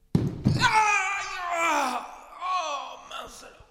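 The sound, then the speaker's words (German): Two heavy wooden thumps of a conductor's long staff stamping the beat on the floor strike in quick succession, followed immediately by a long, falling human wail or moan that trails off. “Zu Lullys Zeiten benutzten die Dirigenten noch lange Stöcke, mit denen sie den Takt auf den Boden stampften.”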